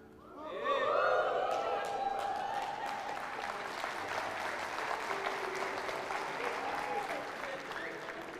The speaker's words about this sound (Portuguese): O pessoal da escola podia começar pelo menos o aplauso, né?